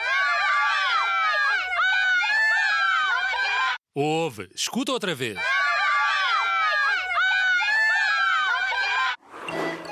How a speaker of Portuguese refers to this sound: Será um grupo de crianças a gritar, um grupo de velhinhos muito chateados ou alguém muito aborrecido à espera de uma pizza? E a resposta correta é um grupo de crianças a gritar.